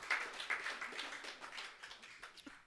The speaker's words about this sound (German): So, also ihr dürft euch jetzt selber, glaube ich, einfach mal einen Applaus geben, so dafür, dass ihr äh, uns hier unterstützt.